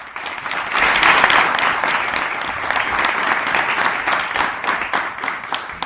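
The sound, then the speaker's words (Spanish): Sustained audience applause, a dense wash of many hands clapping that swells quickly and holds steady at a fairly loud level for several seconds, with scattered individual claps standing out near the end. “Y es un ejemplo, un buen ejemplo de ello, así que quiero pedir un aplauso también para ellos.”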